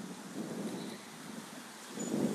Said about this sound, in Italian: C'è un sacco di vento